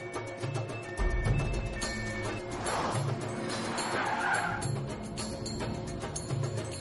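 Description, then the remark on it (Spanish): A car speeds through city streets with its engine roaring and tires screeching loudly, the squeals rising and falling over a steady rush of road noise, continuous. “El sicario circula a gran velocidad por las calles de la ciudad.”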